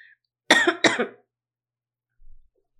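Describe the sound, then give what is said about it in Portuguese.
Two sharp coughs in quick succession, fairly loud, followed by quiet with only a faint low thump near the end. No one speaks. “Ficou eu segurando pra ver se eu não ia tossir, que ele já tinha tossido.”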